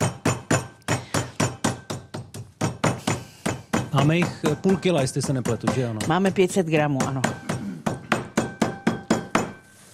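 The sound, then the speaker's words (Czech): Rapid, steady thuds of a meat mallet pounding chicken schnitzels, about three blows a second throughout, loud and sharp, with a man speaking briefly over the pounding midway. “já teď bacha, bacha naklepu řízky.”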